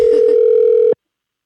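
A single steady electronic tone of an outgoing phone call's ringing signal, loud, holding for about a second before cutting off abruptly into silence.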